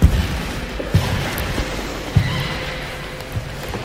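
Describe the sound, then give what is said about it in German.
Slow, unhurried footsteps of a person strolling thud across a very echoey wooden floor in the Kunstmuseum Basel art museum in Switzerland, a few distinct steps about a second apart, with a hollow echoing room tone and no talking. “Das Schlendern auf dem sehr halligen Holzboden durchs Kunstmuseum Basel.”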